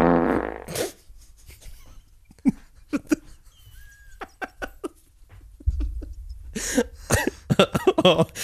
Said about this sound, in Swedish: Och en blötfis.